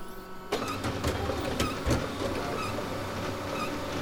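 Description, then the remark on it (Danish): A computer printer prints out text typed on a computer, its mechanism whirring with repeated clicks and short mechanical ticks as the print head shuttles back and forth, fairly loud, with no talking. “Så trykker jeg på en knap, og teksten bliver printet ud.”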